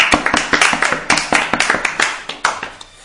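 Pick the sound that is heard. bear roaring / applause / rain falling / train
applause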